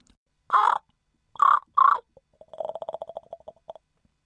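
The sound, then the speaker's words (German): Jakob, a raven at a Tierpark (zoo), caws three times in harsh, loud calls while being offered food, then makes a fast rattling series of clicking croaks, with no talking. “Genau, Jakob, der Rabe.”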